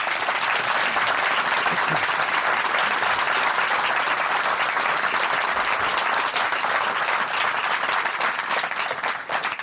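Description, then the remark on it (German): Sustained applause from an audience, a dense wash of many hands clapping at a steady, loud level throughout, easing only slightly at the very end. “Das ist Ihr Applaus.”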